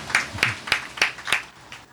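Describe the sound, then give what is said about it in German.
Hands clap in a steady rhythm, about six sharp, evenly spaced claps at moderate volume, sounding like a small group of audience members applauding in time to welcome a performer to the stage at the Wiener Naschmarkt in Vienna, with no voices. “Bitte mit einem großen Applaus.”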